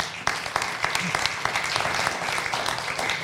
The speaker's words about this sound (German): Herzlich willkommen. Applaus